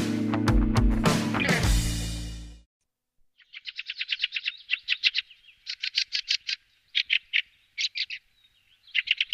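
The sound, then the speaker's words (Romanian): A short musical sting gives way to a fieldfare's harsh, chattering calls, delivered in quick repeated bursts with brief pauses, clear, with no talking. “Triluri Urbane. Cocoșarul”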